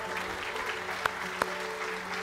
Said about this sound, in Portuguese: Aleluia! Aplauda ao Senhor!